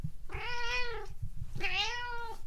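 Two drawn-out cat meows, each rising then falling slightly in a plaintive, fairly high tone, separated by a brief pause, with a low background rumble underneath and no talking.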